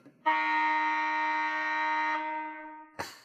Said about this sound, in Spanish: Nos hemos ayudado de soportes audiovisuales, es decir, hemos incorporado dos televisores con un cronómetro y un ruido bastante molesto. Infernal, sí. Para las presentaciones de 20 segundos, que a los 20 segundos suena este ruidito.